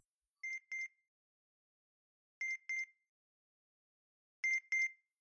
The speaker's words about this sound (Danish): Hvad er det, der bipper, tænker Give og går efter lyden. Lyden kommer fra køkkenet. Det er jo bollerne, siger Give begejstret og tager dem ud af ovnen.